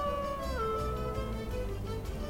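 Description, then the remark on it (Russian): A sustained wolf howl rings out, a long steady tone that dips lower partway through and holds, fairly loud, with no voices around it. “Увидев хозяина, здоровяк издал волчий вой и легко спрыгнул на землю.”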